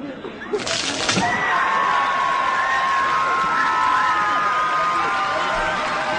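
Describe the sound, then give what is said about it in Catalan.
At a town festival, a short, sharp burst of cracking noise cuts through early on as the ankles of the person at the bottom of a low human tower give way. Then a large crowd roars and cheers steadily in a big ovation, with whoops and whistles rising above the loud, continuous din. “No són gaire alts i rarament es descarreguen bé, però la gent ho viu molt i l'espatec de quan rebenten els turmells del qui està sota és rebut sempre amb una gran ovació.”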